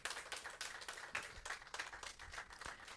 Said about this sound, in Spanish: Aleluya. Dale otro aplauso al Señor, que Dios es bueno.